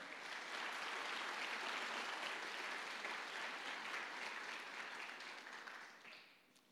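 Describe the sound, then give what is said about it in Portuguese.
A crowd applauds steadily, a dense wash of many hands clapping at an even level for several seconds before thinning and fading out at the end. No one speaks. “Você pode aplaudir esse amor que é eterno?”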